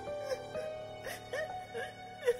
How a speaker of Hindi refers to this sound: और अचानक वो सिसकियां